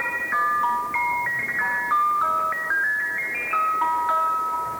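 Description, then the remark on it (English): A tinny electronic ice cream truck jingle plays a simple stepping melody, looping continuously at steady volume with no talking over it. “If I was woken up in the middle of the night by that song, I'm out of whatever area I'm in.”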